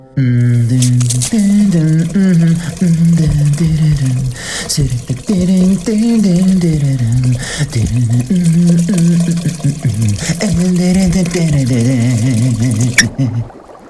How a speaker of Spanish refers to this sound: ¿Qué ganas de darme un baño de burbujas, terminar con la compu y sumergirme en un libro?